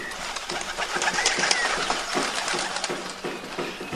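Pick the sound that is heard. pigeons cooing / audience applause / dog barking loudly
pigeons cooing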